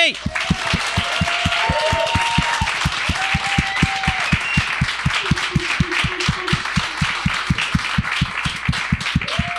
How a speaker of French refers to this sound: Mesdames et messieurs, bonne main d'applaudissement pour Charles Jourdain et Olivier Aubin-Mercier.